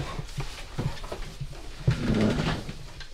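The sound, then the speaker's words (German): A chair is shifted, with a few soft knocks and a louder scraping drag across the floor lasting about a second, amid faint room noise. “Ich tue mal den Stuhl ganz kurz.”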